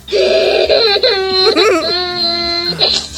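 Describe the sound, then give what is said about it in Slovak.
A toddler wails loudly and continuously, the strained high-pitched cry rising and falling in sustained bursts with a brief break in the middle, piercing, with no talking. “ale ten keď otvorí vrátka, tak to znie trošku inak, no.”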